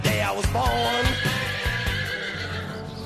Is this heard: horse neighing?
yes